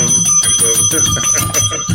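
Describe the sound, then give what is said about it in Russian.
A small bell rings rapidly and repeatedly, its bright metallic tone sustaining throughout the two seconds with fairly loud, quick strikes and no talking. “Понимаешь, зачем колокольчик? Вот он.”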